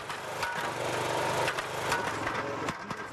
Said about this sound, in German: Diese Rammkernsondierung macht viel Lärm. Gehörschutz, Sicherheitsschuhe und Helm verstehen sich von selbst.